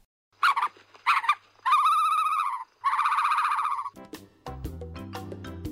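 An ostrich call: two short honking cries followed by two longer, drawn-out nasal calls, fairly loud and harmonic, after which a music jingle starts.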